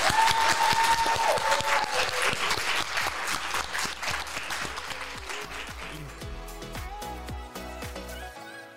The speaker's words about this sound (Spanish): Aplausos doctora.